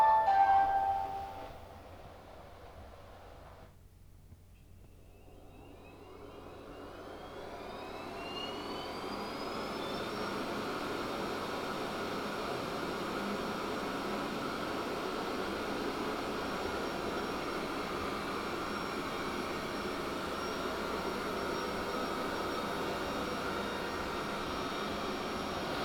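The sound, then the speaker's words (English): A robot vacuum cleaner starts up after a few short electronic beeps, its motor whirring up with a rising whine, then runs on as a steady, fairly loud whooshing drone with no talking. “I'm gonna hit the play and let you listen for the robot for a while.”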